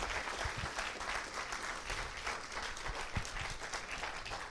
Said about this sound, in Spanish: Alguien que le dé un aplauso al Señor. Someone give a round of applause to the Lord.